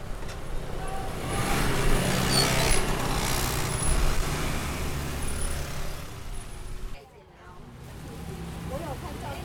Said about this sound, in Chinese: 所以接下来呢，我让你花几分钟的时间来。从听觉去感受他卖菜的现场，感受那个摊位周围发生点点滴滴，然后有人情味、有温度的声音。